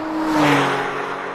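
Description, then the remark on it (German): A black sports car driven by footballer Lutz Eigendorf approaches on the wet, slippery Forststraße in Querum, Braunschweig, Germany, in the evening; the engine revs and whirs, pitch sliding and swelling to a loud peak before easing off slightly, with a broad rushing road noise underneath. “Die Forststraße ist an diesem Abend nass und rutschig, als sich ein Sportwagen nähert.”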